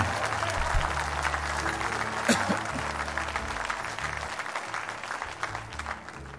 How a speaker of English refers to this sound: If you receive that, give the Lord a great big clap offering.